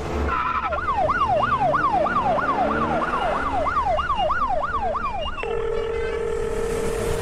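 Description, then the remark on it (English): A loud police escort car siren in a fast yelping pattern, sweeping up and down about twice a second, then switching to a steady held tone over low rumbling road noise. “Not with a police escort, buddy. Light them up”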